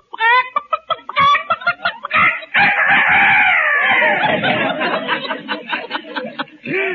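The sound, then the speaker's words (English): Mel Blanc, on the phone in his fix-it shop, imitates a rooster crowing as a 'Dr. Rooster' phone joke, starting with a few staccato clucks and building into a long, loud, drawn-out cock-a-doodle-doo. “I have a phone call for you from Dr. Rooster. Uh, just a minute, I'll put him on.”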